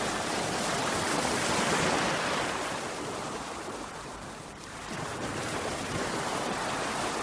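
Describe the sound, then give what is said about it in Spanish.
Heavy, roaring ocean surf of gigantic storm waves churns continuously, a broad wash of crashing water that swells loudest early on, dips briefly, then surges back up. No voices, just the rough sea. “Lo buscó inútilmente durante mucho rato entre las olas gigantescas”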